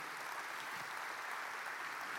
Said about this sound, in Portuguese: Se é para Jesus, Aplauda mais forte. Se é para Jesus, aplauda mais forte, irmãos.